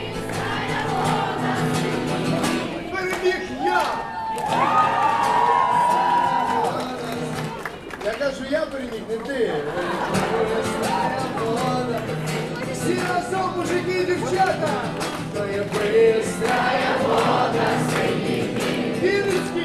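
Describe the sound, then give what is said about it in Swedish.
A crowd of voices sings together with street musicians in a loose, unison chorus, steady and fairly loud throughout, with a lively, communal feel and some background crowd noise. “Här sjunger man tillsammans och ibland är det publiken som tar över.”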